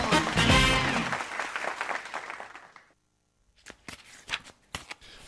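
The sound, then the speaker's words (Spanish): Trading cards riffle and shuffle loudly in a long dense burst, then after a brief pause come several sharper, separate snaps and flicks of the cards being handled. “¿Seguís jodiendo con esas cartitas?”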